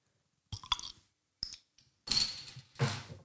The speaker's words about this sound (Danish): Øh, men for ligesom at stimulere snakken, ja. så, øh, så lad mig starte med lige at åbne den her øl, så vi kan smage uh. på den.